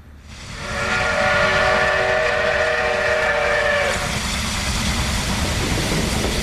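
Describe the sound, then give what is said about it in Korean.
A loud, sustained steam whistle blows for about three seconds over the heavy rumble and hiss of a train, then the whistle cuts off and the rolling engine noise continues on its own. “그래가 무작정 네 할아바의 손을 잡고 기차에 올라탔다.”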